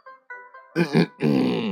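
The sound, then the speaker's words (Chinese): A man clears his throat: a few short hummed tones, then rough, gravelly rasps that swell into a longer, louder throaty scrape at the end. “老猴子一看，觉得出头露面的机会到了，清了清嗓子说”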